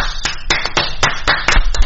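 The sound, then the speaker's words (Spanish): Rhythmic handclaps, about eight in two seconds, cutting through a denser wash of softer clapping: a small, steady burst of applause with no voices. “Aplausos para los estúpidos.”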